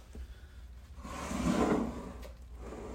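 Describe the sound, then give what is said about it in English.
A person smashes a grasshopper with a shoe: one muffled thump that drags into a rough scraping rub for about a second, then fades back into quiet background noise with no talking. “if you heard any of that, I did smash it with my shoe, which I do kind of feel bad about.”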